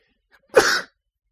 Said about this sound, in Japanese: くしゃみ、失礼します。なんか、あれなんですかね、花粉ですかね。花粉症じゃないんですけども、なんかやっぱこの季節、他の季節に比べたらやっぱりちょっとなんか鼻がムズムズすることがあるような気がします。